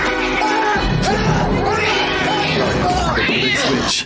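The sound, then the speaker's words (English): In a film scene, a cat yowls and snarls loudly and continuously for several seconds as it attacks a man, its wavering cries rising and falling over a dense, chaotic din, with human voices shouting underneath. “that cat's about to choke him out, man.”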